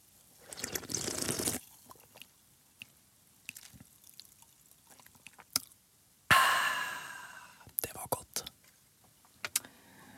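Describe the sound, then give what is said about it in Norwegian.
Someone handles and sips from a can of Mango Loco energy drink: a hissing slurp at the start, scattered small clicks and taps, then a louder fizzy, breathy burst that fades, followed by more clicks. “Uansett, vi tar en slurk. Her er Mango Loco.”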